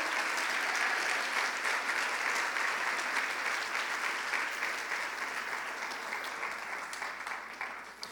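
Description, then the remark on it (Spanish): A church audience applauds loudly and steadily for Jesus Christ, a dense wash of many hands clapping that stays strong throughout and eases only slightly toward the end, with no voices standing out. “Dáselo fuerte si lo vas a dar a Él.”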